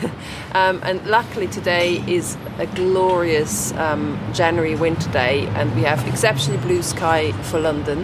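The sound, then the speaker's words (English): A woman speaks and laughs outdoors at a roofless church ruin in London on a sunny day, while a steady low rumble of busy city road traffic runs continuously underneath her voice, faint but constant throughout. “and you can hear a bit of the traffic of busy London in the background.”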